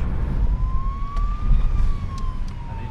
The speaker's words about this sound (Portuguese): uma ambulância para a maternidade, não? Será que está alguém para nascer?